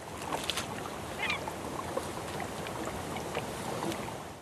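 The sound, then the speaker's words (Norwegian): A steady, broad wash of water and the low rumble of a small boat carrying researchers on Isfjorden, who use nets to catch seals, with a few faint bird calls rising briefly in the background. “Det er idylliske omgivelser i Isfjorden der forskere i en liten båt bruker garn for å fange en ny klimaforkjemper.”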